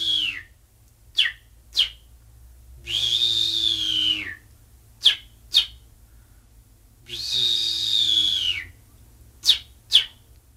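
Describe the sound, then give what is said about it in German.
A person whistles an imitation of a finch call, used to lure finches into nets to catch them: pairs of sharp, quick chirps alternating with two long, high whistled notes that dip at the end, with no talking. “Und wenn wir eben so gepfiffen haben, dann sind sie zwischen den Netzen gekommen, dann haben wir sie gezogen und gefangen.”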